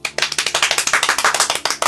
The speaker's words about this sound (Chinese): 欢迎大家关注，呱唧呱唧 欢迎欢迎。 啊！为什么要呱唧呱唧呢？